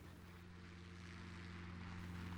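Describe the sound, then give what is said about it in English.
A steady, droning helicopter rotor and engine hum, fairly loud, with a low harmonic throb and broad wash of noise running continuously throughout, no voices. “Are we going on a helicopter ride?”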